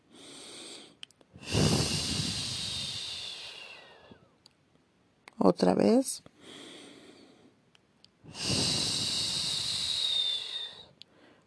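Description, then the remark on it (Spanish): Two long, deep, airy breaths, each lasting a few seconds, drawn in slowly and exhaled slowly, with a brief spoken phrase in between. “Y hay que respirar y exhalar. Hay que, de manera despacia, despacio, perdón”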